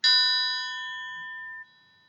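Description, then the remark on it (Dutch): A single clear chime rings out with a sharp strike and bright, layered tones that sustain and slowly fade, then cut off abruptly, leaving a faint high ring. No voices. “Het volgende klingelgeluid is dan hoorbaar.”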